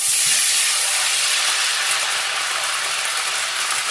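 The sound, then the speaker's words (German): Broth poured in one go from a bottle hits hot fat to deglaze, with a loud, continuous sizzling hiss, bright and steady throughout, easing only slightly toward the end. No voices are heard. “Das soll jetzt ablöschen.”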